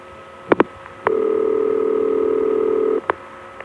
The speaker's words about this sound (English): After it's finished dialing, you'll hear the number 5 crossbar line go tick a clunk. Then the trunk will go off hook, and then we hear the tick of the number 5 crossbar line being cut through.